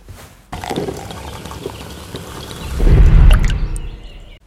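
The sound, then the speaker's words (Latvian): Iced coffee is poured steadily into a cup for a few seconds, the splashing growing fuller and louder near the end as the cup fills, with no one speaking. “Ledus kafija.”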